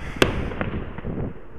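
A firework cake launching into the sky: a sharp bang followed by a rapid string of thumping shots at a steady rhythm, heard outdoors.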